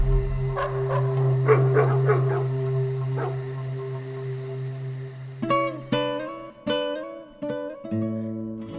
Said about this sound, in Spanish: Destrabó difícilmente los dedos con que su hijo había venido sosteniéndose de su cuello y al quedar libre, oyó como por todas partes ladraban los perros.